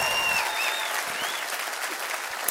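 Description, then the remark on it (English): A large church audience at Red Rocks applauds and cheers, making noise for one of the church's locations, with sustained clapping, whoops and high whistles blending into a dense, steady roar that holds for the whole stretch, sounding broad. “I, I want to take a moment just to welcome all of our locations Arvada, Brussels, across the pond, Evergreen, Lakewood, Littleton, and uh, of course, we make some noise for our guy behind bars uh, location.”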